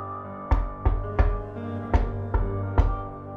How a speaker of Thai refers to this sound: ค่ำคืนดึกดื่น ขณะที่ลุงทองดีกำลังหลับอยู่ จู่ๆก็ได้ยินเสียงเคาะประตูดังขึ้นจากหน้าบ้าน